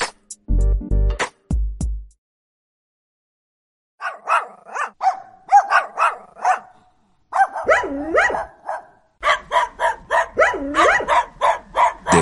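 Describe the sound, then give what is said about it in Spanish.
A dog barks repeatedly in quick, uneven bursts, with whiny yips between barks, after a couple of short tonal blasts and a brief pause at the start. “perrito?”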